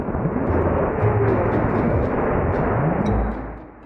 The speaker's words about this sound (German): Das klingt jetzt wie ein großer, sehr lauter Staubsauger und sieht auch ein bisschen so aus. Aber das ist das neue Tool für die Rettung von Verunglückten in den Bergen. Ein Düsenrucksack, bestehend aus einem Rückentank und vier Triebwerken,